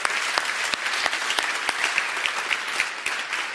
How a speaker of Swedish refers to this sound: Är det några här som är för första gången? Titta, titta. Det är några här. Kan vi inte ge dem en varm applåd?